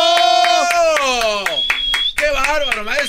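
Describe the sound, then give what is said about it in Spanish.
Sharp, steady hand claps repeat at an even beat for about three seconds, sounding over a loud sustained singing voice that bends in pitch. “No tengo tiempo para aplausos.”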